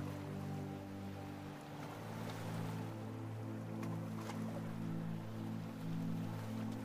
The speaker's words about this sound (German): wie du dich an einem wunderschönen Strand am Meer befindest. Nimm die Geräusche der Wellen wahr. Das Rauschen des Meeres begleitet dich in dieser Meditation und hilft dir beim Entspannen.